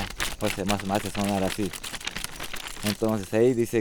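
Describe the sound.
A leaf from a plant reserved for shamans is crinkled by hand to make it produce sound, giving dry, irregular rustling crackles that come and go, with a person's voice speaking in between and over the sound.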